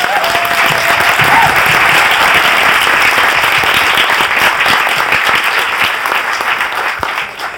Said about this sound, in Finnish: Eli ihan oikeasti aplodit myös kaikille meidän vapaaehtoisille.